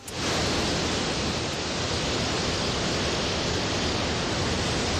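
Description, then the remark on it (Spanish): A steady, dense roar of sea waves washing continuously, loud, with no distinct breaks between surges and no voices; the sea at the municipality of Pulpí in Almería, Spain. “Pues mira, con este sonido yo creo de mar lo haríamos desde el municipio de Pulpí para disfrutar de las primeras zonas de acampada libre cerca de las playas de los Cocederos y La Carolina, que son dos tesoros que hacen frontera entre Murcia y Almería”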